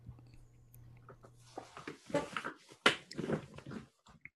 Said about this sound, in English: Well, my chair makes a lot of noise when I move.